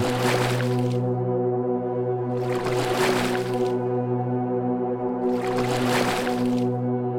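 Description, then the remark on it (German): The oars of a boat dip and splash through water in three slow, rhythmic strokes about three seconds apart, clear, over a steady low humming drone with no talking. “Plätschernd gleiten die Ruder unseres Bootes wieder unter die Wasseroberfläche.”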